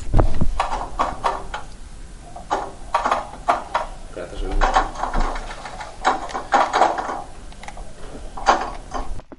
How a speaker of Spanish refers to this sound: Esto es la máquina del millón. Esa máquina del millón y ya está.